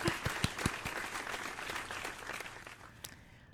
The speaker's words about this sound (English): Where's the applause, applause? Applause. There we go. So sorry. I'm late on that.